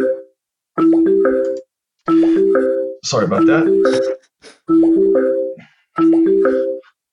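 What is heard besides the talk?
telephone ringing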